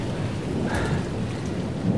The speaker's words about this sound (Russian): И пока гроза не стихнет.